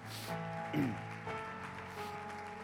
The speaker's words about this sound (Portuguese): Pode aplaudir o Senhor aqui.